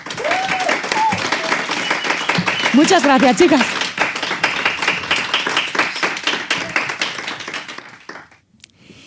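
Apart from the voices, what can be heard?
studio audience applauding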